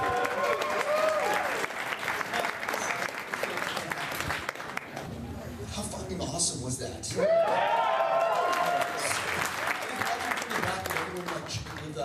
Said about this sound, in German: Also bei den Kinoscreenings zum Beispiel, da war die Atmosphäre einfach total geladen. Das hat mich richtig mitgerissen. Könnt ihr mal ganz kurz reinhören in den Applaus.